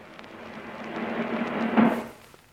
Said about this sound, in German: Drumroll. Das wird live eingespielt, oder? Ja, klar.